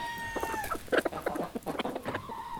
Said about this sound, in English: Today, my story is about a different common animal the chicken.